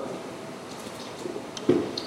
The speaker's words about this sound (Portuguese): Por exemplo, eu estou tomando água.